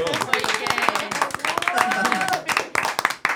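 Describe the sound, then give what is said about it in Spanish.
Steady applause of many hands clapping in a dense, irregular patter, fairly loud throughout, with some voices calling out underneath the clapping. “Yo creo que este primer episodio se merece un aplauso.”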